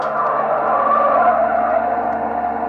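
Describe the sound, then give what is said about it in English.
A loud, sustained tire screech as a car with no brakes skids at about 85 to 88 miles an hour, a continuous high squeal over a roaring engine, unbroken for a few seconds with no voices. “85 miles an hour. 87. 88, no way to stop her, no brakes, no nothing.”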